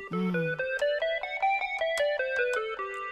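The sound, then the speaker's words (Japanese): A plain ascending major scale played note by note on a bright, synth-like instrument, each tone short and evenly spaced, climbing steadily after a brief low opening note, with no voices. “ブルーノートって言われるような音でジャズとかブルースあるいはそこから派生したソウルとか R&B なんかでは頻繁に使われる音なんですけどそこにたどり着くまでは普通の音階。”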